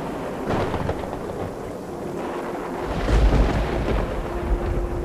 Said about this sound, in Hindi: घर के अंदर कदम रखते ही घनघोर बारिश शुरू हो गई ऐसी तूफानी बारिश जो कई सालों में मैंने ना देखी थी